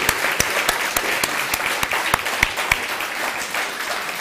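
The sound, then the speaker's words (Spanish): An audience breaks into applause, a dense wash of many hands clapping at once, with a few sharper individual claps standing out early on before the sound settles into a steady, even roar. “Uno, dos, tres, un fuerte aplauso.”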